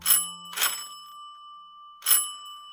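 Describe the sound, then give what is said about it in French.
A bell rings three times, rung by a cook around 8 in the morning: two quick bright strikes followed by a third after a short pause, each leaving a clear metallic tone that hangs in the air. No one speaks. “Celle-ci sonna plusieurs fois, mais en vain.”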